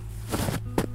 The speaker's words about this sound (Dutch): Het is misschien moeilijk te horen omdat het nu niet heel hard sneeuwt, maar dit heb ik een paar jaar geleden opgenomen. Toen het echt gesneeuwd had. Je hoort het geluid van voetstappen in verse sneeuw.